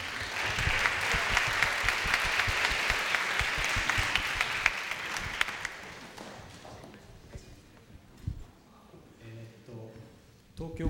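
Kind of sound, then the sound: crowd, applause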